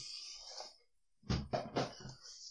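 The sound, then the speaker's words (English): A plastic bag crinkles and rustles briefly, then ice cubes drop from it into a glass for a gin and tonic in three quick clunks, each with a short rattling ring, followed by more faint rustling. “You know, I got the ice cubes in the plastic bag. I'm sure I can hear this.”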